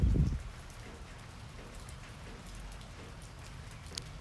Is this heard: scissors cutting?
no